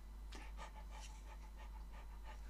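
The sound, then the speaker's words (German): A person imitates a big dog's panting: steady, breathy huffs repeating in an even rhythm, about five or six quick pants, fairly loud with no other talk. “Eine Sache ist auf jeden Fall ein Fakt. Große Hunde sind so.”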